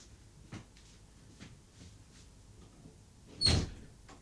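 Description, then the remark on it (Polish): A door is opened and closed to test microphone placement: a sharp latch click, a few faint knocks and shuffles, then a louder thud with a brief squeak near the end. No one speaks. “teraz może otworzę i zamknę drzwi.”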